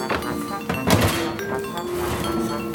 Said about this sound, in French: Et là, je vais ouvrir le four pour voir si tout est cuit.